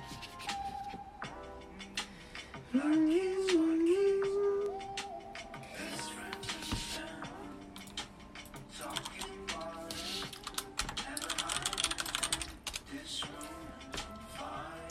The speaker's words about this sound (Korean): 검색창 들어가서 동물의 숲 좀 쳐, 쳐보고 해야겠다.